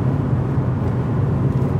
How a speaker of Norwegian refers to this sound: Suster det? Ja, det suser litt. Det er litt mer lyd her nå i bilen enn det var i stad. Men det kan være at det er asfalten som har en sånn grov det. Nå går det 110 her, så.